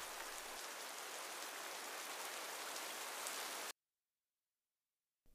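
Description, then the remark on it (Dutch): Steady rain falls in a dense hiss for several seconds, then cuts off abruptly into silence before a brief burst returns at the very end. “En het is de eerste keer dat er water uit de hemel valt.”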